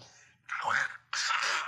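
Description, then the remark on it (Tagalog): A person makes wet, gurgling mouth noises in two short bursts, like gargling saliva while chewing, imitating messy eating sounds for a scene of eating a foot. “Na parang yung minumumog or ginagargle mo yung sarili mong laway.”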